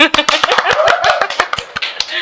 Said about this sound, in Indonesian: Tepuk tangan dong.